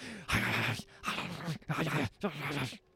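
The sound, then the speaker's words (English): A dog barks and yips four times in quick succession, each bark short and harsh and loud, with brief pauses between them and no one talking. “and just this this barking and yipping”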